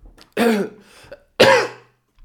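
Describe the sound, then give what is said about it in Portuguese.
Two harsh, forceful coughs, spaced about a second apart with a faint rasp between them, from someone choking after water went down the wrong way. “Então, então já, estávamos a falar, ui, água.”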